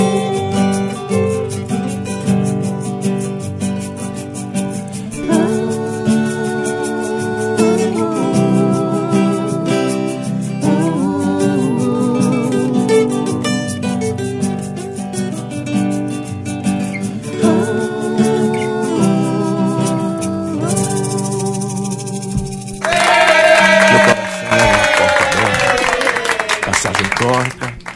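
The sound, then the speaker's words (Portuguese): A recorded song plays steadily with a sung melody over sustained instruments for over twenty seconds, then gives way to a burst of loud applause near the end. “Essa é a canção que abre o show que eles vão fazer amanhã, né?”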